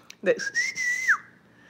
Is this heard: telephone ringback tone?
no